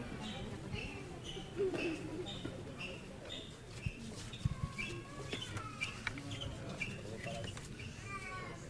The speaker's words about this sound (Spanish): Y este es el sonido que se escucha, se está pelotonando todo el mundo, pues están saliendo los monaguillos por ese embudo que es tan solo una puerta abierta